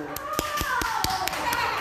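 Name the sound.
applause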